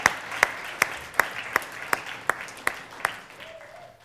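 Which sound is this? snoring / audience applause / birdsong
audience applause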